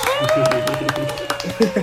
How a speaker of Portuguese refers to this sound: Uma salva de palmas.